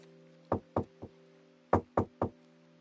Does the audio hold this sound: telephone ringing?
no